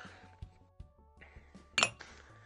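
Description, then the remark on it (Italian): A small coffee cup clinks sharply against a hard surface, one bright ringing strike amid a few softer taps and faint rattling, with no voices. “la tazzina. e la bottiglia, anche la tazzina.”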